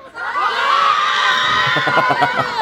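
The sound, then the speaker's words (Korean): A crowd of middle school students on a field trip outside the KBS building shouts and cheers together in a loud, sustained, high-pitched roar, with rhythmic bursts of yelling toward the end. “얘들아, 얘들아, 니네 중, 중학생 같은데 그, 그 정도밖에 소리 못 질르니?”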